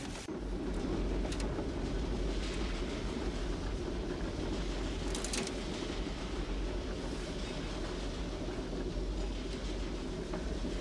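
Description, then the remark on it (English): A train rolls steadily along the rails with a continuous low rumble and faint clattering, with a few brief metallic squeals and no one speaking. “You're going to push that button and stop this train!”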